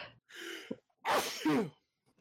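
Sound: sneeze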